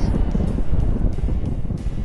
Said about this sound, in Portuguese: Barulho de bomba pra ele.